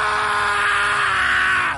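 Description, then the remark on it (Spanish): A man lets out one long, loud, agonized scream that holds steady for nearly two seconds before cutting off, raw, with no other talk around it, as he falls to the floor. “se engancharon en la esquina de la mesa y cayó al suelo finalmente gritó.”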